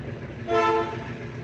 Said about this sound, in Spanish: perdón, que estaba pasando el tren y, eso, creo que se escucha